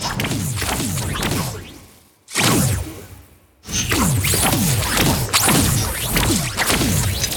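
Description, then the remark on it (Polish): A rapid series of sharp electric whip swishes from a video game's nanowire weapon, very thin energized wires lashing out from the hand, slicing through the air one after another with a brief pause midway, loud with no talking. “I to są po prostu takie nie chcę mówić elektryczne, bicze jakby, które nam wychodzą z ręki.”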